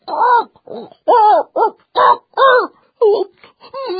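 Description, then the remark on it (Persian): A voice imitates an old rooster straining with all its strength to crow: a string of about eight short, strained, wavering cries with rising and falling pitch, fairly loud, broken by brief pauses. “اونا خیلی زود به یه خروس رسیدن خروس با تمام نیروش تلاش میکرد که قوقولی قوقو بکنه”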